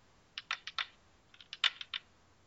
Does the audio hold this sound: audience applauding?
no